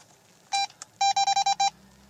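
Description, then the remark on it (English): A ghost-hunting device beeps as it is switched off and on: one short, bright tone, a tiny click, then five quick beeps in a row, with no talking. “That's just me turning it off and on, just so I could see like, well, the sound does work.”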